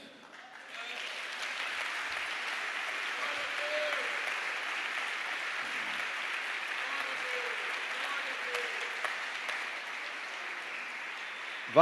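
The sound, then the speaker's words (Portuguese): A crowd in a church breaks into sustained applause, a dense wash of clapping that swells within the first second and holds steady at a fairly even level until the end. “Eu não sei porque você ainda não está aplaudindo.”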